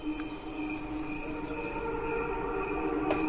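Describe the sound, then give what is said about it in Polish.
Crickets chirping, slowed into a steady, layered hum of sustained tones that sounds like an ethereal choir, even and continuous throughout with no voices. “Słuchaj, poważnie, to są świerszcze.”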